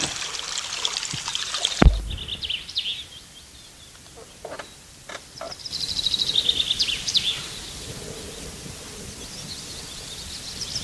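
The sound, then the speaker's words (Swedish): Outdoor morning ambience at about ten past eight, with scattered bird chirps and calls, fairly faint, over a steady background of trickling water; a brief sharp knock near the start and a short burst of higher warbling midway. “Ja, det är lite fåglar igång.”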